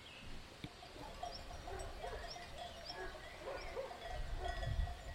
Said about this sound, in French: Depuis le deuxième étage de cette maison hantée, nous pouvions voir le berger qui promenait ses moutons flanqués de leurs grelots bruyants.